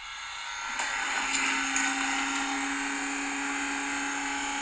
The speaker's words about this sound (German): Die hat auf einmal so ein richtig lautes Motorengeräusch gemacht, was auch immer höher und höher wurde.